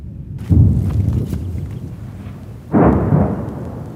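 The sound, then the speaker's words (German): Two heavy, low booming detonations on the Gaza Strip, heard from a hill by Sderot, each a sudden loud onset that rumbles and slowly decays, the second about two seconds after the first, with no voices present. “Auf den geschundenen Gazastreifen hören die schweren Detonationen”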